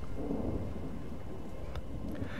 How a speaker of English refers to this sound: Outside, the wind began to blow and the rain began to fall. A storm was coming.